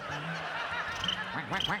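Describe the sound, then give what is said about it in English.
Ducks and chickens at a bunkhouse calling together on a dry night, a steady overlapping chorus of nasal quacks and clucking cries, growing busier with quick repeated calls toward the end. “There's bunkhouse ducks and chickens.”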